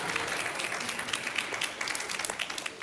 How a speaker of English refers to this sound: Lots of applause. Wow.